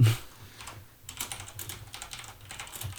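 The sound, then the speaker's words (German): Rapid clicking of keys as a man types on a computer keyboard, a steady irregular patter of keystrokes with a faint low hum underneath and no one speaking. “da ist er am Tippen wieder verrückte, ey.”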